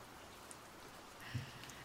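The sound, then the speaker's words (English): Soft, steady rainfall hisses evenly throughout, quiet and continuous, with a few isolated drops tapping a surface now and then, including one slightly louder patter near the end. No voices. “I'm gonna roll you out with some of these beautiful rain sounds and let you kind of just chill and decompress.”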